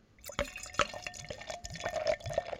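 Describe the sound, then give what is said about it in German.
Beer is poured by a professional into a glass, with a steady liquid gurgle broken by splashy, bubbling pulses and small drips. No one speaks. “Der hat erstens ein anderes Glas, da fließt das Bier auch schon vom Geräusch her ganz anders rein.”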